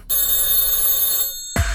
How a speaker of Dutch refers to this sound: En, maar let op, want als bij jou de telefoon gaat, dan is het misschien wel de ene telefoon.